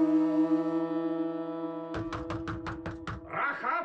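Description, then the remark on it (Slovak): A sustained droning tone gives way to about seven loud, heavy thuds in a quick, steady rhythm, like fists pounding on a wooden door, followed by a brief rustling noise. “Čo sa deje? Otvor dvere! Ty niekoho čakáš?”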